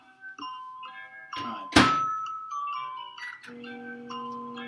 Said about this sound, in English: So it's a, it's a Himalayan yak dog chew. It's been soaking, and uh, and we're going to now see uh, what it's going to taste like. Okay, so I'm just going to put it in the microwave right now.